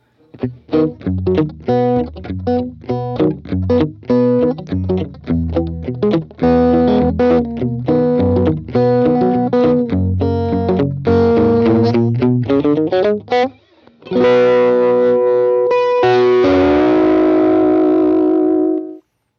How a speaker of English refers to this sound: So, yeah, when you listen to that song, his lyric form, like a traditionally in 12 bar blues, it's all about the call and response. You have the first line and then the second line usually are the same line.